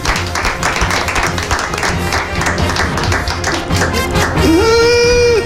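A crowd applauds steadily and loudly for several seconds, a dense crackle of many hands clapping, with a sustained tone rising over it near the end.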